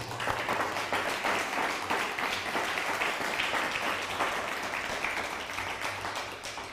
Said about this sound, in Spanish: Eh, desde Costa Rica, un fuerte aplauso a Costa Rica.